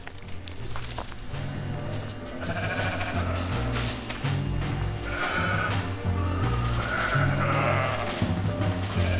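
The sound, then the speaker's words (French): A mountain flock of nervous ewes bleating repeatedly, several overlapping calls, over a steady busy background of shuffling movement as they keep walking without stopping; no one speaks. “Les brebis sont nerveuses, elles ne veulent pas manger, elles marchent sans arrêt.”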